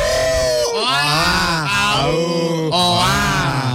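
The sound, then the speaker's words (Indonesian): A person imitates a dog howling with loud, sustained wavering vocal tones, rising and falling in pitch across several drawn-out howls with brief breaks between them. “Wah, anjingnya pasti melolong.”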